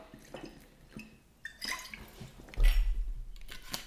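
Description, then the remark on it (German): Quiet liquid sounds: a few small wet drips and slurps followed by a short gulping swallow as someone takes a quick sip of water, with no talking. “Ich nehme nochmal schnell einen Schluck Wasser.”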